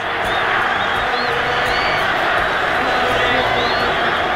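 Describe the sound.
A huge stadium crowd roars continuously, a dense wall of cheering and chanting voices with occasional whistles rising above the din, loud and sustained throughout. The whole stadium backs the Belgian underdog, the Red Devils, as they prepare for extra time after a 2-2 draw in normal time, chanting "Belgica".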